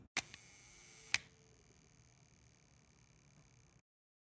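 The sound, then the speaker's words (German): An M3 rangefinder film camera shutter fires at a one-second exposure: it opens with a crisp mechanical click, then closes with a second click about one second later, otherwise quiet apart from faint background hiss. “Diese, diese wundervolle M3. Ich ja, genau. kann ja mal so ganz fies hier nochmal eben Ah, alleine schon dieses äh, Aufzugsgeräusch”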